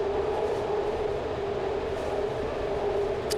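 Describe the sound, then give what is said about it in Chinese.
BART train wheels screeching on the curved track below the San Francisco Bay Bridge, between Oakland and San Francisco, from wheel-on-rail friction: a loud, sustained tonal squeal riding over a continuous heavy rumble and roar, steady for the whole stretch with no voices. “这种噪声的真正的来源呢，其实是车轮和轨道摩擦时候发出的噪音，尤其是当地铁开过 San Francisco Bay Bridge，也就是从 Oakland 到旧金山的这条这座大桥下方轨道弯曲的这一段时，摩擦声尤其尖利。”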